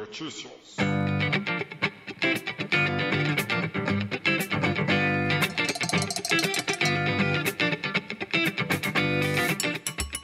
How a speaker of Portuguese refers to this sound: Por isso, se for de seu consentimento, siga ouvindo a este spin logo depois de nossa vinheta.